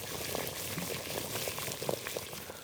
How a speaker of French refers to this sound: Mais si nous mettons cette grenouille dans une casserole d'eau à température ambiante et que nous faisons monter progressivement la température jusqu'à ce que l'eau boue,